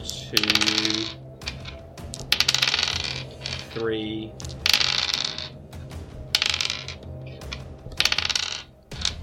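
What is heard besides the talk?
dice rolling and clattering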